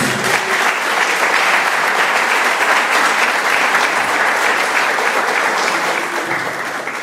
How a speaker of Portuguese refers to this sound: Dê uma salva de palmas para Jesus.